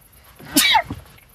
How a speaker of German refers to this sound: Ich muss niesen. Gleich, vielleicht auch nicht.